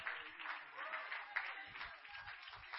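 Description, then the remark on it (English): A church audience in Southern California claps together in a steady, dense wash of applause that holds for a few seconds, fairly quiet, with no one speaking over it. “Oh, clap your hands because I'm feeling it on me here tonight.”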